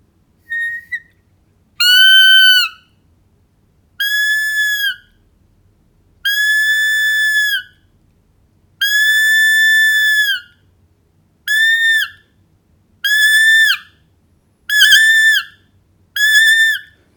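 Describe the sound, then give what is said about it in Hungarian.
Roe deer fawn distress bleats: about eight loud, high-pitched, piercing cries, each lasting around a second, repeated at irregular intervals, with no talking in between. “ezek rövidebb hangok, és hogyha valami igazán szorongatja, vagy komoly bajba van, akkor viszont már a, a vészhangját fogja hallatni a gidasírást.”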